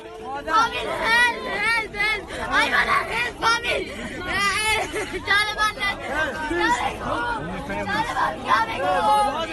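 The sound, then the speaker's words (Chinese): A dense, agitated crowd of tens of thousands of people outside Kabul airport in Afghanistan, many voices shouting and calling over one another at once, a continuous loud babble with frequent raised, strained cries rising above the din. “与喀布尔市区逐渐恢复平静相比，喀布尔机场外围仍是一片混乱，不时响起枪声。 数万人来到机场附近，希望搭上飞机撤离。”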